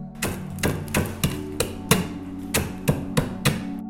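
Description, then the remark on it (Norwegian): Kavring rusks being crushed into crumbs while apples cook into a purée, with a steady run of about a dozen sharp, crunchy thumps, roughly three per second, over a low continuous hum, with no one talking. “Mens eplene koker, passer det perfekt å knuse kavringen.”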